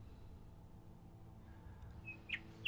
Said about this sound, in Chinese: 夜莺的歌声。